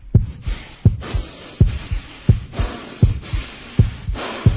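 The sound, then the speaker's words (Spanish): A voice imitates rapid, heavy breathing: a steady series of about seven short, breathy pants, each with a low thump and airy hiss, repeating quickly and evenly with no talking. “Respiración acelerada, respiración acelerada, doctor.”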